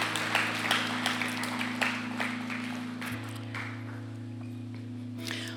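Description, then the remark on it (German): An audience applauds in thanks, a loose patter of clapping over a steady low sustained tone. The clapping is densest in the first few seconds, then thins out while the drone continues. “Und so steht gerne einmal auf und genau, euch sagen wir Danke mit großem Applaus.”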